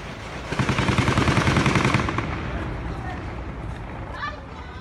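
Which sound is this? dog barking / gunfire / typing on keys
gunfire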